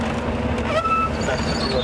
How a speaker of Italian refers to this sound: Ah, In coda dietro un pullman, questa è una costante di tutte le montagne del mondo